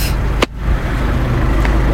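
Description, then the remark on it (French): A car rumbles past, a steady low engine and road roar that holds throughout, broken by one brief sharp click early on. “Voiture.”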